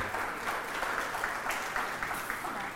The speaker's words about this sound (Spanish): Un aplauso para ella que va a leer